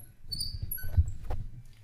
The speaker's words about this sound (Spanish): Aparte venía con un brazo robótico más grande que yo que sé. Y aparte se puede mover, aunque tiene un chirrido cuando se mueve que...